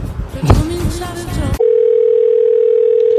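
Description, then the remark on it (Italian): A brief burst of busy, clattering noise cuts off abruptly into a steady, unbroken telephone dial tone that hums loudly and evenly until the end, at the start of a recorded radio phone call. “Quindi mando subito la registrazione di quella telefonata fatta qualche sera fa.”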